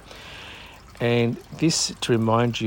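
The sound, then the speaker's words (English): A garden water fountain about two or three meters away trickles softly in the background, a faint steady watery hiss heard alone for a moment before a person starts talking over it. “And my nice little water fountain is about two or three meters away, and you probably can hear it trickling away in the background.”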